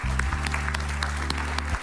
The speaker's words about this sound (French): Applaudis comme un victorieux. Si tu crois que Dieu va te donner la victoire, va briser cette mentalité d'échec, tu peux faire plus de bruit que ça.